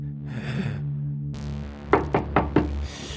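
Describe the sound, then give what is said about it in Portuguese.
Four firm knocks on a locked hotel door in quick, even succession, clear, preceded by a soft breathy sigh-like sound over a low steady hum. “Senhor, a porta está trancada.”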